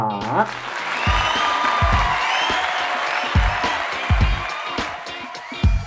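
A crowd breaks into steady applause that fills the whole stretch, dense clapping mixed with scattered cheers and whoops, loud, with occasional heavier thumps underneath, welcoming a neuroscientist guest.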